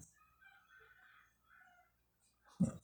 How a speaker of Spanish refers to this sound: Es un gallo que está cantando, ¿no? Sí.